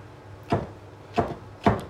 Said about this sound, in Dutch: Dus die zongedroogde tomaten een fijn stukjes snijden.